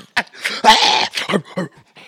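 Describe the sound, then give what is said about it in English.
A dog lets out a handful of weak, strained barks mixed with whimpery yips, coming in short irregular bursts over a couple of seconds. “he can't even bark properly.”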